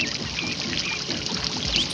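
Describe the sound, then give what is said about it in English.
Water trickles and burbles steadily, a continuous bright splashing texture with no pauses, and a faint high chirp briefly near the end. “Close your eyes. What do you hear? I hear the water.”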